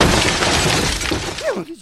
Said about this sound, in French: Maintenant que la porte est détruite, nous pouvons pénétrer dans le dit logement afin de procéder au relevé des compteurs.